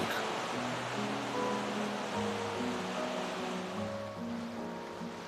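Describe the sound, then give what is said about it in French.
A steady rush of water churns continuously beneath a low droning hum as a boat glides slowly along a canal in Burgundy, with no voices. “si l'on veut découvrir la Bourgogne en bateau, il faut avoir du temps, parce qu'il y a beaucoup d'écluses à franchir.”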